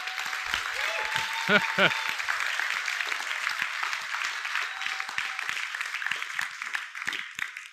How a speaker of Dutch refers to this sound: Laten we God een applaus geven.